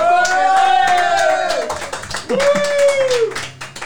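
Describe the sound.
An audience applauds a singer on stage with steady, dense clapping that lasts the whole few seconds, while a couple of loud voices whoop or call out over the clapping.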